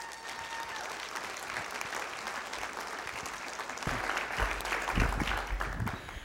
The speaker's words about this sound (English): Did you hear somebody scream? That's all I could ask for.